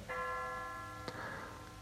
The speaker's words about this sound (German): 12 Uhr. In katholischer Tradition wird es das Angulusgeläut genannt. Eine Glocke schlägt zunächst im kurzen zeitlichen Abstand dreimal hintereinander dreimal an. Dann folgt das längere Läuten einer meist hell klingenden Glocke.